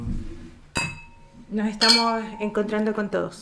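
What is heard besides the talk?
glasses clinking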